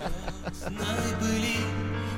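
A song plays on air at steady volume, with sustained melodic tones over a steady low bass line, filling the whole short stretch without any talking.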